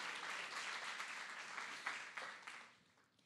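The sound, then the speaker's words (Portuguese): An audience applauds: a dense, steady wash of many hands clapping together that holds for a few seconds, then thins out and fades toward the end. “Será que você pode aplaudir?”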